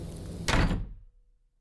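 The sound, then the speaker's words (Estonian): A house door is slammed shut behind someone stepping in from the snowy outside into a small entrance hall, a single heavy thud followed by a brief rumbling decay that fades into quiet. “astusin sisse ja lõin ukse enda järel kinni.”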